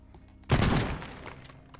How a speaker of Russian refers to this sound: Покажи взрыв, Виталик.